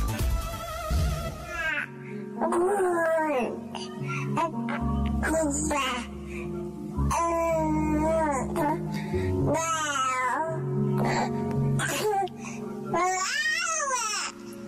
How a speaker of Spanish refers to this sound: Para los que son, em, las que son mamás o papás, eh, cuando escuchan a su bebé balbucear por primera vez, eh, ¿a poco no es lo más bonito del mundo, no?